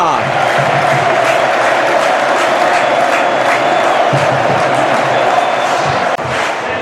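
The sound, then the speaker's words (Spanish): A large football stadium crowd at Castalia, home ground of Club Deportivo Castellón, roars and cheers steadily throughout during a match, a dense wall of voices with chanting swells, loud and continuous with no single voice standing out. “Escuchamos Castalia te pregunto, mano, pero mira Castalia cómo suena.”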